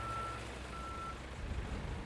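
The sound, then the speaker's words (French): Two long, steady electronic reversing beeps from a backhoe loader sound over a low, continuous diesel engine rumble, moderately loud, with no voices. “Dedans, un petit garçon et une grosse tractopelle.”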